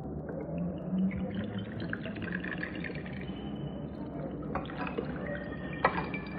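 Whisky is poured, first a small splash onto the floor, then served: a gurgling stream whose pitch rises as it fills, followed by a second short pour ending in a soft clink. No one speaks.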